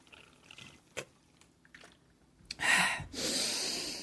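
human body sound, people drinking water

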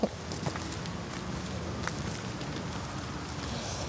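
human body sound, footsteps walking outdoors

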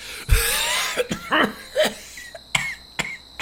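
human body sound, coughing fit

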